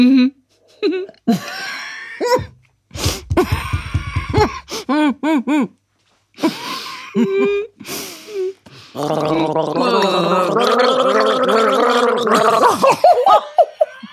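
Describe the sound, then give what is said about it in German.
Someone gargles a song tune without lyrics, a bubbly, warbling melody held for several seconds, after short bursts of laughter and breathy vocal sounds. “Okay, nicht lachen, gurgeln.”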